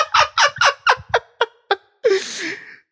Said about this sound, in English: Oh, I don't know if you heard that. He farted.